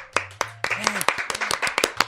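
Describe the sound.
A brief burst of applause: loud, sharp handclaps in a quick, uneven rhythm, with voices sounding underneath the clapping throughout.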